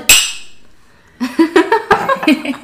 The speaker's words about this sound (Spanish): Hoy las copas sonaron diferentes porque en verdad son tazas.